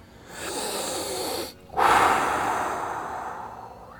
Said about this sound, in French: Ok, ok, on va prendre toute une grande respiration.